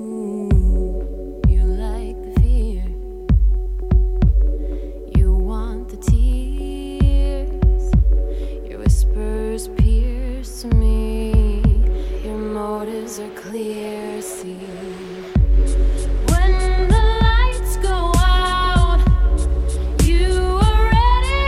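A pop song plays, with a steady thumping beat and melodic sung lines; the arrangement gets fuller and louder about two-thirds of the way through.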